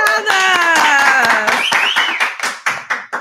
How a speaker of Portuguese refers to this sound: Ah, palmas para as nossas convidadas!